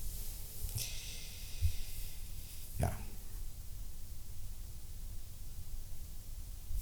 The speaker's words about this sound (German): Ja, du schnurst nur, ne? ist dir eigentlich relativ egal, oder?